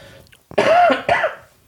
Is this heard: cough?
yes